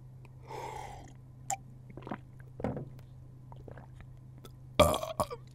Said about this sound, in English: Now, root beer，听上去就特别的响，呃，打嗝。